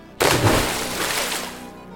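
A sudden, loud splash of lake water, scooped up in a backpack, tossed onto a sleeping person to wake her, bursting in sharply and then trailing off into a brief wash of spattering and dripping.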